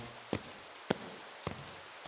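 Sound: rain falling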